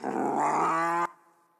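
A bear growls once, a loud, deep, rumbling snarl lasting about a second. It cuts off abruptly and leaves a faint fading tail.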